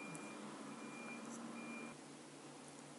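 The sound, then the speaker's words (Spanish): A container-cleaning truck's steady engine rumble at night, with a high reversing-alarm tone sounding above it before cutting out partway through, leaving a quieter mechanical hum. “No era el camión de la basura, sino el que limpia el contenedor.”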